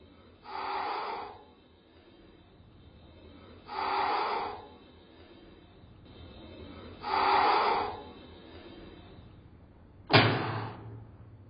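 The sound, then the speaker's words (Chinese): A leopard cat growling: three raspy, breathy hisses of about a second each, spaced evenly apart, then one sudden sharp spitting burst at the end. No one speaks. “聽！石虎的聲音！”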